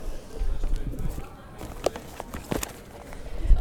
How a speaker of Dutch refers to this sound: Ik ga eens in mijn tas grabbelen.